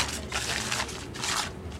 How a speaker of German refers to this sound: lächelt und greift in ihre mitgebrachte Papiertüte.